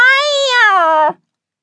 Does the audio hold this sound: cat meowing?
yes